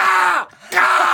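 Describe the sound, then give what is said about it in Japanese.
A man's voice imitates a crow with two loud, raspy, drawn-out caws separated by a short pause, harsh. “あの、カートとかに乗ってる時もずっとボケてて、何ボケてんのっつったら、カラスの鳴き声とかやった。”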